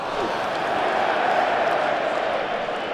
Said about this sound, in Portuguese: Davi Luiz vai cobrar a falta, vamos ver a torcida.